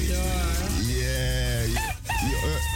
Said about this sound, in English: Hey, Rooster. Good morning. Easy, easy. We hear you, Rooster.